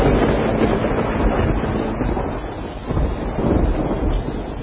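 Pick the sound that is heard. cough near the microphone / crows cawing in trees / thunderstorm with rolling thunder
thunderstorm with rolling thunder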